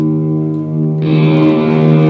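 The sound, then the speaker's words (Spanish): A sustained, washy reverb tail from a guitar rings on steadily with a shorter decay, only the reverb sounding and not the strike on the guitar itself, holding a low harmonic drone that grows brighter and airier about halfway through; no one speaks. “Esto que, son, que escucháis ahora es el 100% producido por la reverb.”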